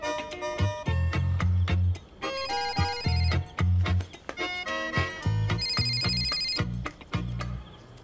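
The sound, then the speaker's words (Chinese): A phone rings on an outgoing call placed from a mobile phone: a loud, melodic ringtone of bright, bell-like notes over a steady, pulsing bass beat, playing continuously for several seconds with no one talking. “用我的手机打吧。”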